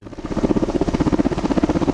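A helicopter carrying large concrete blocks and sandbags to a dam along the Mur river at Dolna Bistrica, Slovenia, passes overhead, its rotor beating in a rapid, steady thudding pulse with a loud engine drone underneath. No voices are heard.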